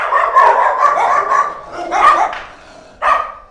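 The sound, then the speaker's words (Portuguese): A loud, dense chorus of many dogs barking and yapping at once at a dog hotel, the overlapping barks blending into a continuous din, with a fresh burst of barking near the end. “O latido dos cães, todos em couro, chega a ser ensurdecedor.”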